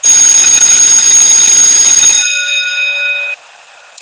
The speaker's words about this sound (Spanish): ¿Oyeron eso? Es el timbre que nos indica que el podcast ha llegado a su final.